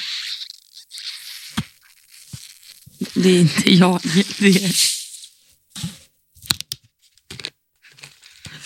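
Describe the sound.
Crackling fizz of julmust soda being poured and bubbling, a steady hiss with small pops, as a voice briefly speaks over it partway through.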